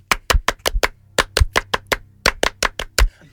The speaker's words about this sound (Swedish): Och en stor, stor, stor fransk applåd! Un, deux, trois!